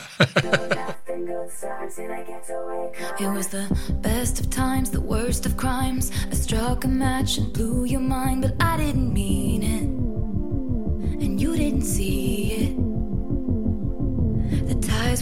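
A pop song intro plays with no vocals, opening on sustained synth chords before a steady, throbbing beat and deep bass kick in and drive on at an even tempo.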